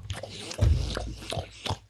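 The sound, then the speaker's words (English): Wet, exaggerated chewing and biting noises made by a person miming eating the pages of a book, with repeated smacking bursts and a loud low thump partway through, lasting about two seconds. “I want to eat. I want to basically eat a book in front of a terrified woman.”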